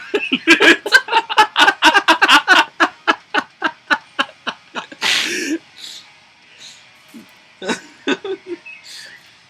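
A rapid string of short, breathy bursts fades out, then a single sharp sneeze rings out, followed by a few faint scattered sounds.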